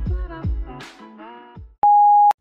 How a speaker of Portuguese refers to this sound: Chegou à caixa de correio de Telerrelação. Ouça as nossas confissões após o sinal.